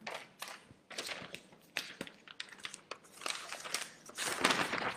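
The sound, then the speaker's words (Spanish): Sheets of paper crinkle and crumple as they are moved, in a quick series of sharp, irregular crackles and rustles, getting denser and busier toward the end, with no talking. “Esas hojas las vamos a reciclar para que no se preocupen.”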